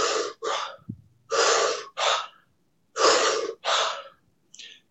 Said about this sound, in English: Is go ahead and just mouth breathe and do do 20 breaths in a minute where you just